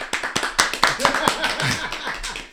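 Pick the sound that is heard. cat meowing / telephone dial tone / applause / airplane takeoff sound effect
applause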